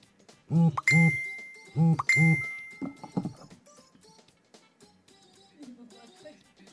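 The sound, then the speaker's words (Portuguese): A mobile phone vibrates in two double buzzes, a low rattling hum pulsing twice, pausing, then twice again, followed by faint clatter and quiet background noise. “André Felipe tá ouvindo meu celular vibrando, tá, tá, tá, tá triste aqui.”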